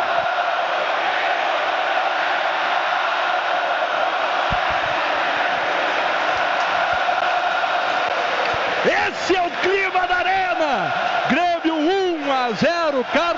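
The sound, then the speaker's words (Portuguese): A large football crowd of Grêmio supporters roars steadily in a stadium after Grêmio takes a 1–0 lead, then breaks into loud, rhythmic massed chanting of "Inter cagão", many voices rising and falling together over the final few seconds. “Grêmio na frente, 1 a 0 e a torcida grita Inter cagão, Inter cagão”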